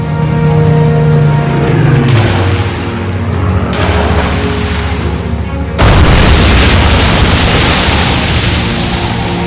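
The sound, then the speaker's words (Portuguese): Heavy explosions from bouncing bombs, dropped low by bombers and skipping over the reservoir water, striking a dam wall boom out one after another, three loud blasts rolling into a continuous thundering roar, with a low droning hum underneath at the start. “Os aviões deveriam lançar as bombas, chamadas de bombas saltadoras, próximas à água, e as mesmas percorriam o trajeto sobre a água represada até atingir a parede da barragem, causando violentas explosões”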